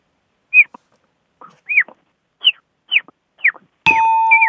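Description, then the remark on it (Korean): Someone imitates a baby chick with five short, high, rising-and-falling peeps at an even pace. A sudden steady, ringing electronic-sounding tone then starts and holds to the end. “아, 그 병아리 한번 해주세요, 병아리.”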